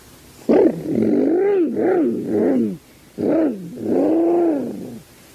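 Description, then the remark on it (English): A voice imitates a roaring, revving supercharged car engine in four growling bursts, pitch surging up and down, loud, with a short pause in the middle, while playing at driving a surface car on Mars. “Gosh, my surface car is supercharged now.”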